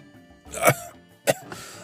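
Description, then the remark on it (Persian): A bent old man, a patient, coughs twice, a rough burst followed about half a second later by a shorter, sharper one. Both are fairly loud, with no talking. “بیمار بعدی پیرمردی خمیده با صرفه های بسیار بود پسر او را به پس پرده فرستاد وقتی حرف میزد توأم با نفس نفس زدن بود”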